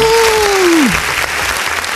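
Loud, dense applause welcomes a photographer guest on a broadcast, filling the whole two seconds, steady and crackling, while a smooth descending whistle-like tone slides downward over the first second and fades out.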